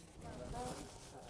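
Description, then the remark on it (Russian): Soft, scattered rustling of many Bible pages being turned at once as an audience opens to Luke chapter 10, a dry papery shuffle, with faint murmuring voices underneath. “Слышу шелест страниц.”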